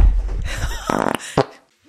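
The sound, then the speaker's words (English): A man farts right into the microphone while being recorded: loud, close and buzzy, a short rattling burst followed by a quick puff, with some muffled rustling before it. “Yeah, I asked him if I could record him talking about how he felt when he first discovered we were having a baby, and he farts into my mic.”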